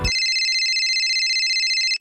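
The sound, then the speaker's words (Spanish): A telephone rings with a steady electronic trill lasting about two seconds, loud, then cuts off, followed by a brief higher beep. No one speaks. “Entonces me pongo a escribir una guía de lo que quiero platicarles en el podcast y vuelve a sonar el teléfono.”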